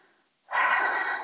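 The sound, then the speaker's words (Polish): An audible breath drawn in sharply after a brief pause, a broad airy rush that swells quickly and holds steady for most of a second, with no talking. “bierzesz głębszy oddech, po prostu przenosisz całą swoją uwagę do siebie na oddech.”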